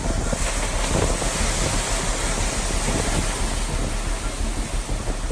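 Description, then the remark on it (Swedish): Roaring hurricane-force wind from a hurricane striking Florida buffets the microphone over heavy surging waves, causing dangerous flooding along the coast, a loud, continuous wall of rushing noise with no voices, steady throughout. “den skapar farliga översvämningar på stora delar av kustremsan.”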